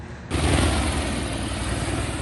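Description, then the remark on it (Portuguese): A fire department (Corpo de Bombeiros) Esquilo-model helicopter flies by. Its loud rotor chop and engine roar kick in abruptly after a quiet start and hold steady throughout, with no voices. “A chegada rápida do helicóptero pilotado pela Major é capaz de mudar o desfecho dos acidentes mais graves.”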